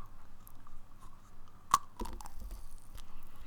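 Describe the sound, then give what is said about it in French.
A teddy bear candy is bitten into right at the microphone with one sharp crunch, followed by a couple of seconds of wet, crunchy chewing. No one speaks. “Et pour la peine, je vais manger un petit nounours dans le micro.”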